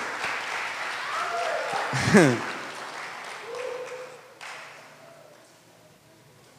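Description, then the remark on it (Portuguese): An audience claps steadily for several seconds, a dense crackling applause that fades out, with a burst of laughter and a few voices mixed in partway through. “Vamos aplaudir a vila deles também, amém?”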